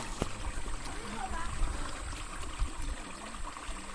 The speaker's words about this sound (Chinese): 有，小溪的声音。 有吗？这是小溪的声音啊，放给大家听听啊，小溪的声音。